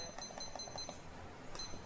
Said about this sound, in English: I'm gonna set my timer here